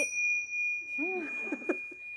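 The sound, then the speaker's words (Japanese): A single bright bell ding sound effect, prepared for a TBS Radio event in Shibuya, rings out and holds a steady, sustained tone, while brief murmurs of voices rise and fade underneath it partway through. “ティン車の音だったりとかはいこんな音も用意してございますのでいざっていう時には鳴らしてください。”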